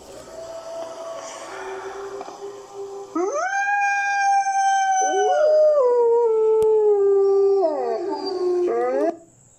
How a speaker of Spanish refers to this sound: y en las noches por el río se escucha de repente los aullidos del lobo.